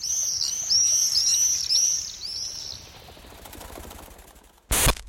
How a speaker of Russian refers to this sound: Голоса ласточки и стрижа тоже совсем разные. У ласточки это приятное торопливое щебетание, у стрижа пронзительный громкий визг-крик, за что он получил свое русское название.